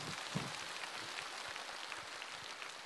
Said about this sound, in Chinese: 给他个鼓励呀，鼓鼓掌啊！